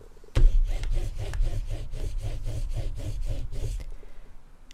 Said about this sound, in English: Mr. Nosey was walking in the woods when he heard somebody sawing wood